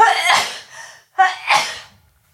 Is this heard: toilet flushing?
no